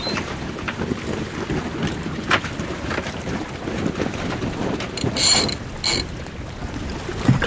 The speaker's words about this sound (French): Ok Je vais changer la voile d'avant.